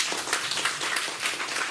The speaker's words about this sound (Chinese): 阿门，给耶稣一个掌声。